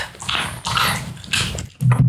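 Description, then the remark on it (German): A dog chews noisily on a beef chew that looks like a prawn cracker, making wet smacking and gnawing sounds in several uneven bursts, with a short low rumbling noise near the end. “Ja, aber wenn man an seinen Geschmatze hört, ist das so ein Hautding oder sowas.”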